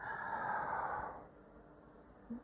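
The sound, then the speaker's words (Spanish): A single deep, breathy inhale drawn in for about a second, followed by quiet as the breath is held, as someone does before letting out a shout. “y aguanta la respiración para luego entonces lanzar el grito, estamos en ese momento en el que Dios está reteniendo el aire, con paciencia”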